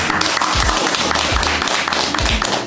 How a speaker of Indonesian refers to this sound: Iya, tepuk tangan.